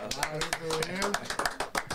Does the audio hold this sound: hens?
no